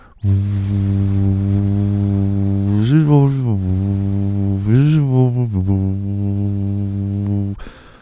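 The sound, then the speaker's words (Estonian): A person hums a steady, low droning tone for several seconds, imitating a blower fan, with two brief upward pitch swells midway before the hum cuts off. “enne mul oli puhur ka tööl”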